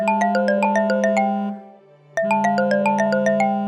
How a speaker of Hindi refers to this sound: आधी रात लगभग एक बजे देवेंद्र का फोन बजा